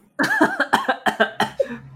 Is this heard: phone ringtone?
no